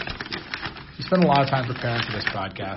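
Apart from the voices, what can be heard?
paper rustling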